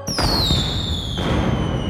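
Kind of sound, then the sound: sound effect, fireworks bursting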